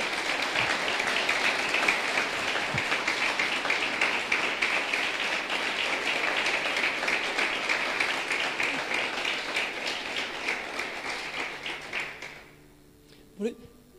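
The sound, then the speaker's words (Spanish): An audience applauds after a call to raise hands and give glory to God, a dense wash of many hands clapping for about twelve seconds before it abruptly dies away, followed by a brief quiet moment with a single faint knock. “Dar un aplauso grande al que”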